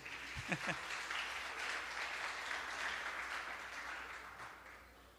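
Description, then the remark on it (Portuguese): A round of applause from a crowd, dense steady clapping that fills the whole stretch, with a brief voice cry near the start and the clapping tapering slightly at the end. “Uma salva de palmas para esse irmão aqui.”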